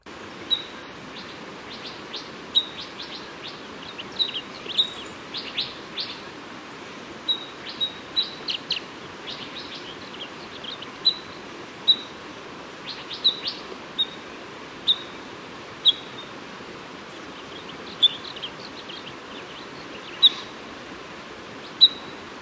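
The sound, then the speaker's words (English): An Abert's towhee, a desert bird of the sparrow family, gives sharp, high call notes, repeated irregularly every second or so, against a steady background hiss, with no voices. “Our second bird is the Abert's towhee.”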